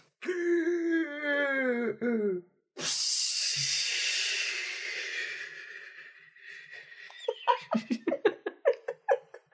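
A voice imitates a whale breathing through its blowhole: a falling moan, then a long, loud, breathy whoosh that fades, ending in a quick series of short puffing bursts.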